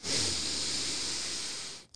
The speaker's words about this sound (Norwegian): Jeg må trekke pusten sånn at jeg eh, finner rett modus.